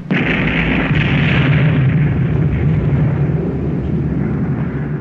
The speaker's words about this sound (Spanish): La consiguiente explosión fue de tal magnitud que el terreno mismo se vio sacudido como por un sismo.